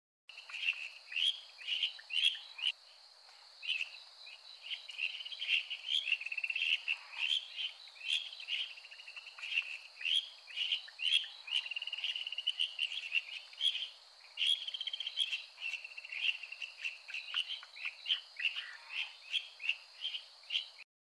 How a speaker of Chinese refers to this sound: 好的，刚刚那个就是听起来很像虫叫声的日本树蛙的叫声。